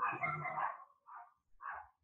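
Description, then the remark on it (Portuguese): Dogs bark three times, a longer rough bark followed by two short sharp ones with brief pauses between, fairly faint, with no talking. “sempre tem os, os meus convidados de honra aqui dando marcando presença, né, cachorros.”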